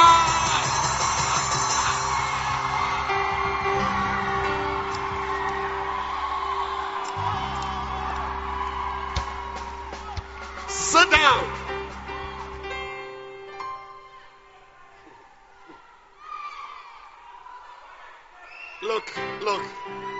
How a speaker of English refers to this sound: Clap your hands, somebody, and give a shout you have not shouted before. Wow!